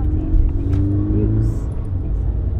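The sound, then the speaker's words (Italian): A car engine hums steadily, a continuous low rumble as the vehicle drives along to a friend's house, with a slight rise in engine pitch partway through. “Sono in auto, la radio accesa, pensieri di ogni tipo che vanno e vengono, finché non mi trovo costretto a rallentare.”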